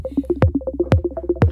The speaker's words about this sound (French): Donc ça, c'est le son d'une monomachine classique.